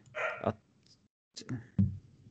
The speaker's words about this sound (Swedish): du vet att vi hör din hund hela tiden?